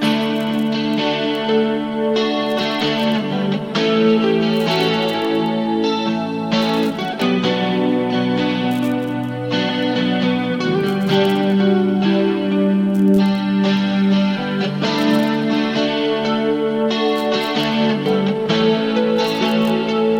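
A rock song plays at full volume, with thick distorted guitar chords ringing steadily and drum hits punching through at a moderate tempo. No voices are heard.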